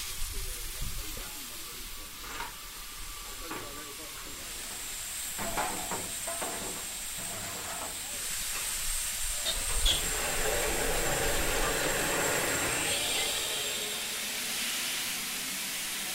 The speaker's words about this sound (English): There appears to be an excessive amount of steam escaping from the steam heating pipe makes the photographs atmospheric, but whether that's intended or not, I'm not quite sure.